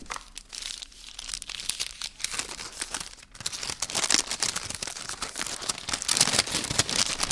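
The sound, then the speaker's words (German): A paper (not foil) wrapper on a white chocolate bar with matcha tea is crinkled and torn open, a steady stream of crisp rustling and crackling that grows busier and louder toward the end, with no talking. “Also wir hören jetzt mal auf dieses wunderbare Geräusch, wenn man eine ja, Schokoladenpackung öffnet.”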